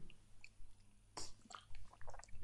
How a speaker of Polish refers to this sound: Nie przestawajcie, proszę ja muszę łyk wody wziąć, bo e, jak się monolog prowadzi, to właśnie tak bywa czasami.